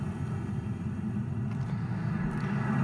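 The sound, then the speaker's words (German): A steady, deep engine drone of an aircraft flying overhead above a jungle in a video game, holding an even loudness throughout with no voices. “Also jetzt fliegt gerade ein Flugzeug über irgendeinen Dschungel oder so.”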